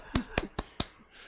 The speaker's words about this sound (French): Bravo à vous. J'étais seul à applaudir.